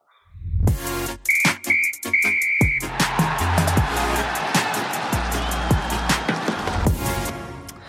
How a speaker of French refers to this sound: Alors on, va siffler la fin du match,